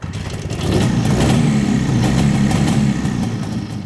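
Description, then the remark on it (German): A 1939 DKW SB 500 vintage motorcycle engine fires up and settles into a loud, steady idle, a deep low rumble with a throbbing, rhythmic chug and no talking. “startet seine Maschine. Eine DKW SB 500, Baujahr 1939. Der Klang satt.”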